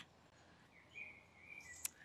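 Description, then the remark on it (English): Faint birdsong outdoors in a garden in the morning: a few thin, high whistles and chirps drift in over a quiet background hush, with no one speaking. “I am sat out in the garden listening to beautiful bird song.”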